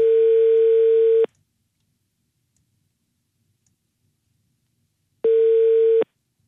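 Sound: telephone ringing tone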